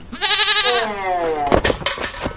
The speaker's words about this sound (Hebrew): אם עז מתעלפת זה סימן, אז נראה לי שקיבלנו אחד. זה בעיקר סימן שהעז רעבה.